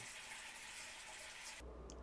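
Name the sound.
running tap water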